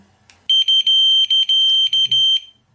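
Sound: wireless receiver alert signal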